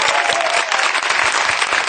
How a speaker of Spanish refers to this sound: Así que el primer aplauso sería para todo el público que siempre nos acompañaba, acompañaba y nos sigue acompañando, pero que hoy representáis vosotros. Un aplauso para vosotros. Para vosotros.